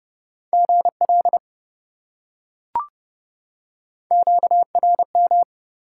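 Fast Morse code at 30 words per minute, sending common amateur radio contact (QSO) elements in a steady mid-pitched beeping tone, two bursts of quick dots and dashes separated by a pause with a single brief click between them, no voices.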